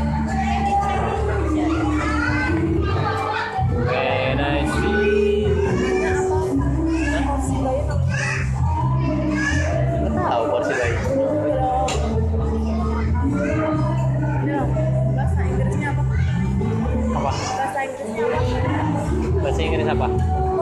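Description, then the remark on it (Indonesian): Dense, steady crowd hubbub on a Saturday night in a busy shopping mall in Tangerang, Banten, Indonesia: many overlapping voices and children's chatter blend into a loud, continuous babble, with no single voice standing out. “malam minggu yang hakiki di Sobuntut Cakyo salah satu mall di Tangerang Banten Indonesia ada live musiknya juga dengerin deh”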